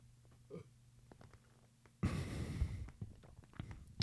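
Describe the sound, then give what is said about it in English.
A single deep, rumbling burp erupts midway, loud, lasting about a second before tapering off into quiet breathing and faint background noise. “I'm a burp. Hold on.”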